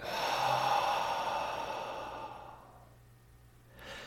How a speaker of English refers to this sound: So for you, this can be meditation, it could be jogging, it could be as simple as a one minute breath work and just breathing in and breathing out.